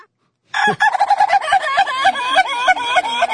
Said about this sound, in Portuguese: Se eu não visse, se eu não tivesse vendo essas imagens aí, e nas imagens vendo que é um galo, eu pensaria que era um peru.